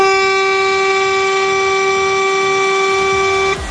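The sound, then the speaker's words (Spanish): A single loud car horn blast holds one steady, blaring tone for about three and a half seconds, then cuts off abruptly. No one speaks. “Pero, dale volumen, que esto es un bocinazo!”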